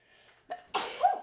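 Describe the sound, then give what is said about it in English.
A single sneeze, fairly loud: a short sharp intake followed by a bursting, breathy release with a brief voiced tail. “I just sneeze again.”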